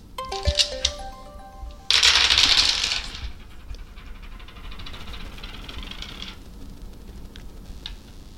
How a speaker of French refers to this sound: Euh, tu sais, je suis venue avec un jeu de dés. Est-ce que tu accepterais de les lancer, ces dés, et de te laisser porter par ce que les dessins vont inspirer